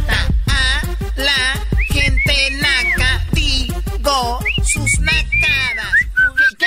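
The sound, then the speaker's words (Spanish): A loud whistled tune of quick sliding notes, the well-known insulting mother-curse melody, played over a steady thumping beat with no talking. “bien clarito que te mentó la madre con chiflido”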